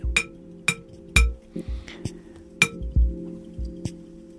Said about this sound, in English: Uncomfortable noise. The bell cannot sing. Why? The clay block blocks the uh, flow of the energy to create a vibration.